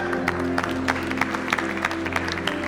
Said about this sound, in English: Let's give Pastor Sam and Sherilyn a round of applause.